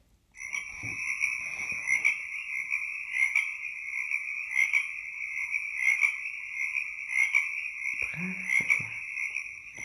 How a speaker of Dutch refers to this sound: bijvoorbeeld bij de vijver. En dan zitten daar natuurlijk allemaal kikkers. En, en wat ze allemaal in de vijver zien.